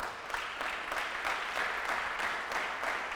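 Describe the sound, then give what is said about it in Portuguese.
A crowd applauds steadily, a dense wash of many hands clapping at an even loudness for several seconds, with no voices standing out. “Dá mais um aplauso a ele aí, ó.”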